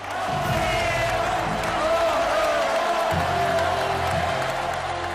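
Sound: bullring crowd ovation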